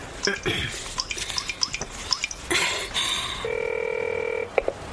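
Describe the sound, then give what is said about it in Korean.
A phone number is dialed: a quick, irregular run of short keypad beeps, a brief burst of noise, then a steady, even ringing tone that ends with a click. “아들한테 잘 받았다고 전화 좀 해줘야지.”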